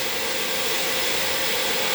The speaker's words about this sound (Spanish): eh, ahora están por estar por moler el café, así que voy a estar sintiendo aromas agradables. Em, y ese es el ruido de que están moliendo café.